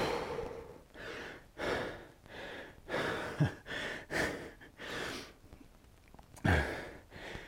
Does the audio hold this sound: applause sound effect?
no